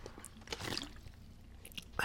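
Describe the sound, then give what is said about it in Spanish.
A quiet slurp of someone sipping a drink, a soft wet mouth sound lasting a moment, followed by faint lip and swallowing noises. “Sorbito.”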